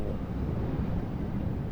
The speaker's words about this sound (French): Et le vent donc euh, qui vient de terre, le Mistral, vient ralentir les vagues. Et c'est ce ralentissement qui fait avec la, la pression du vent cette rumeur de basse, de grave,